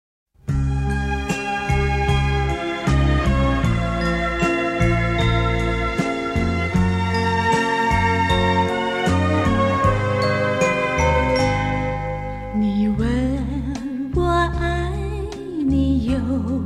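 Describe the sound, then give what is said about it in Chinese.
A gentle 1980s Chinese pop ballad intro plays with chiming, bell-like notes over soft sustained chords at a steady, moderate volume; near the end a wavering, vibrato-rich melody line enters. “我们来听听看八十年代的软实力输出的代表作”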